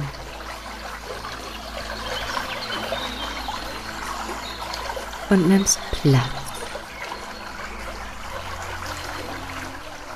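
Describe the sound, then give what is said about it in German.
Water from a spring trickles and burbles steadily throughout, forming a continuous soft bed of sound. A calm voice speaks briefly near the middle over the flowing water. “so suchst du dir nun erst einmal einen Platz an dieser Quelle.”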